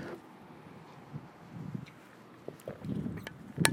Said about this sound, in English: Hang on a second while I have a little sip of coffee.